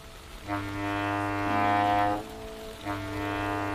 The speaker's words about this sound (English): The sound of the foghorns off in the distance were being overwhelmed by the shouts of people gathered in front of the Franciscan Crab Restaurant in Fisherman's Wharf.